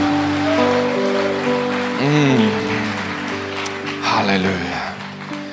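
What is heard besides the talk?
audience applause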